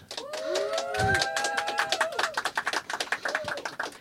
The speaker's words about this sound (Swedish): En liten applåd.